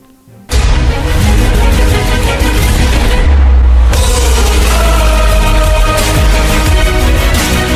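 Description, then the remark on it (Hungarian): The official anthem of the football Europa League bursts in after a brief moment of quiet, loud and full, with booming low drums and sustained orchestral swells throughout, no voices. “Ez a labdarúgó Európa Liga hivatalos dala”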